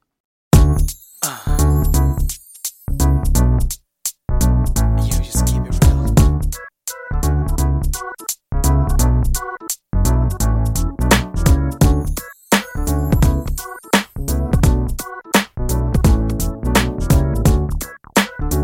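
A pop song plays loudly and continuously, with layered melodic instruments over a steady, punchy beat and brief gaps between phrases.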